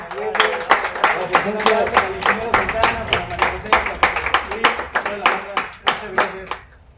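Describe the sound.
An audience applauds with steady, fairly loud clapping for several seconds, the claps rapid and overlapping, with a voice speaking faintly underneath before it tapers off.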